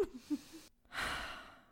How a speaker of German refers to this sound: und nochmal tief atmen.